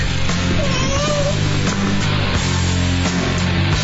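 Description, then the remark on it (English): A single short cat meow, for radio station WTKI Talk's cat mascot Tiki, rises briefly near the start, set against a loud, steady low musical bed that continues throughout without any talking. “official healthcare provider for our mascot Tiki is Catisfaction Cat Clinic in Madison.”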